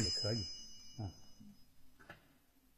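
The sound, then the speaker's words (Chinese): A phone rings with a high, bell-like electronic tone that sustains throughout, starting under a man's speech and continuing faintly after he stops talking. “对不起，我接个电话啊，很少人打电话给我。”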